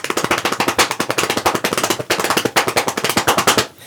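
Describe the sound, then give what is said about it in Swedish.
Fast, hard flamenco dance footwork pounds out a dense, driving rhythm, sharp heel and toe strikes rattling off in rapid bursts, loud, with no voices. “Den där typen av liksom snabba, hårda rytmer.”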